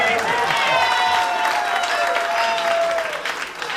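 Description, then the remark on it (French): A round of applause: dense, steady clapping from a group fills the whole stretch, loud, with some voices or cheering mixed in before it thins slightly at the end. “a une main d'applaudissement.”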